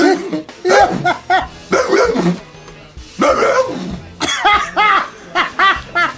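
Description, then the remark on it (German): A man on his knees at an acting audition imitates a dog for the producers, letting out a rapid series of loud barks and yelps in uneven bursts, with brief pauses between them. “Being an actor who was out of work, I got down on my knees and then proceeded to be a dog.”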